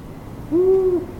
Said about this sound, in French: Mais ça, c'est pas une chouette. C'est un hibou. C'est le chant du hibou grand-duc. Et c'est mignon.